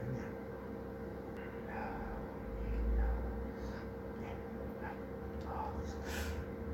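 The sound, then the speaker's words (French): Deliberate breathing, slow inhales and exhales with a breathy rush toward the end, over a steady low background hum. “Après respiration.”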